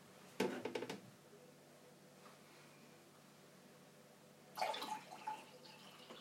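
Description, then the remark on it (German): Water is poured into a cup in two short bursts: a brief splashy trickle at the start, a quiet pause, then a second, fuller pour near the end. “Da ist schon genug Wasser drin.”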